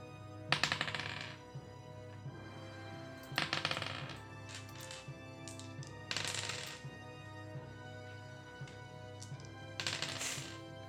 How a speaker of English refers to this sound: Hey, I don't like the amount of dice rolling going on on that end.